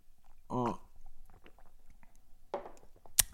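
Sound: sipping coffee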